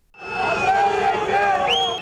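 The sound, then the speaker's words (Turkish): A large crowd shouts and yells together during an armed coup attempt in Turkey as shots are fired on the crowd, many overlapping voices forming a loud, continuous roar for about two seconds, with one higher voice rising sharply near the end. “Şu anda kalabalığın üzerine ateş açılıyor.”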